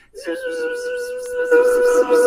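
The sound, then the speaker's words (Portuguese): A voice imitates a modem's data tone, the sound of a stream of information being modulated from 0s and 1s into sound, holding a steady, buzzy pitch for about two seconds that grows louder and harsher toward the end. “E o som soa mais ou menos assim, quando você põe um fluxo de informação.”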